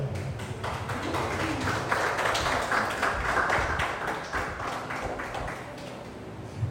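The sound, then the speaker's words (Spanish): An audience applauds God in a dense, continuous wash of many hands clapping, holding steady and fairly loud for several seconds before easing slightly near the end, with no voices standing out. “¿No le das un aplauso a Dios?”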